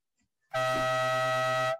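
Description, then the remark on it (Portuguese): A single loud, sustained air horn blast with a harsh, buzzing tone, starting abruptly after a brief quiet moment and holding steady for over a second before cutting off. “para quem vai a tua corneta da partida de hoje?”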